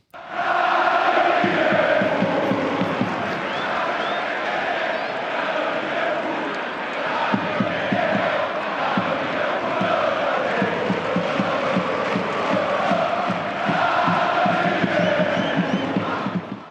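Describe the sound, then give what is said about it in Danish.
A large crowd sings a football chant with "Liverpool" in the song, in unison, a loud, sustained wall of massed voices with a rhythmic, rolling melody that carries on steadily throughout. “Kan I høre det der Liverpool i, i sangen?”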